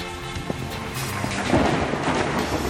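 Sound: thunder rumbling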